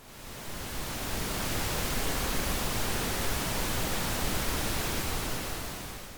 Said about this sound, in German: Das Rauschen der Eiche ist vor allem durch seinen ausgeprägten Hochtonbereich zu erkennen. Es entspricht physikalisch eher einem Rosa-Rauschen, bei dem die Amplitude in den hohen Frequenzen nicht so stark abnimmt wie beim roten Rauschen.